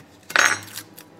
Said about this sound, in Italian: In questo momento sto sbucciando una cipolla, quindi sto eliminando la parte esterna della cipolla.